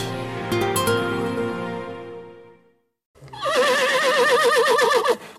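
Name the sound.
horse neighing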